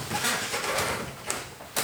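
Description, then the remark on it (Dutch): A chair squeaks in a few short creaks, with one thin high squeal near the end, all set against a steady background hiss, at moderate volume. “Ik denk dat deze stoel zo piept.”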